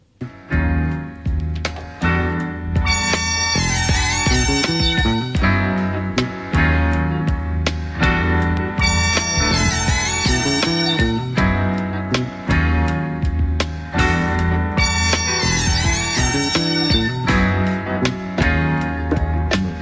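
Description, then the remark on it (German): A soul-jazz song plays continuously at steady volume, with a warm bass groove, sustained chords and shimmering high melodic lines in repeating phrases. No one talks over it. “bis dahin läuft äh, etwas, was ich nicht aussprechen kann. …. ….”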